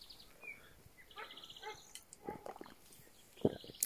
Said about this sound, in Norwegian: Der var det en hund i nabolaget som hadde lyst til å si noen ting. Passa jo bra.